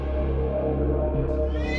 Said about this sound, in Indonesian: Wah, dasar kucing bikin kaget aja.